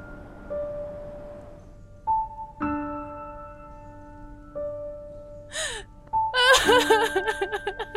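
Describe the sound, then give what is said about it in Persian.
A mother cries and moans, breaking into loud, rhythmic, gasping sobs near the end, following a stretch of sustained, steady tones with no talking. “مادر جان من هم چون شما بسیار متأثر و غمگینم اگر پدرم گریه تو را ببیند ممکن است برای حفظ مقامش ما را هم ترک کند”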